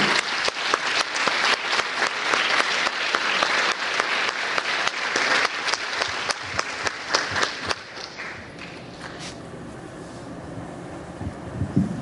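Audience applause, a dense crowd clapping steadily for about eight seconds before thinning out into scattered claps and low rumbling background noise.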